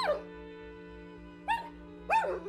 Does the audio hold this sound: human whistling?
no